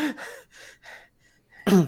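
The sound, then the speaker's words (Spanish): A person imitates a character's breathing with a few short breathy exhales in rhythm, then ends with a sharp, loud voiced gasp. “Pero ¿quién se va a fijar en el sistema de respiración del personaje? Con qué me haga un.”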